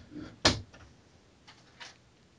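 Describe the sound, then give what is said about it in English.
A single solid thud of a door being shut, followed by a couple of faint clicks and light rattles as it settles; no talking. “Yeah, I did just shut my door.”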